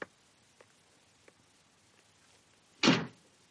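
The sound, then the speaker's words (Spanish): A few faint, evenly spaced ticks like soft footsteps of a man walking down a hospital corridor, then a chapel door opens with a single loud thud and a brief rushing swell that quickly fades. “Abre la puerta de la capilla.”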